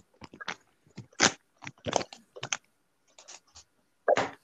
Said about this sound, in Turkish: Ne yapıyorsun tıkır tıkır ya? Kediye mama koydum ya. Sorry özür diliyorum burada bütün dinleyenlerden. Çünkü ayağıma dolanıp duruyordu.